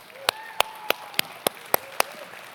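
Seven sharp, evenly spaced claps in a steady rhythm, loud and crisp over a faint background hum, rather than a dense wash of crowd applause.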